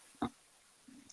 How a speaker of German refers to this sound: Ich habe ich doch gerade das Niesen gehört im Hintergrund. Genau. Gesundheit!